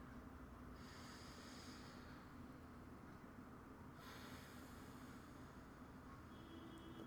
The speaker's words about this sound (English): Can you close your eyes for me? We're gonna just take a couple deep breaths.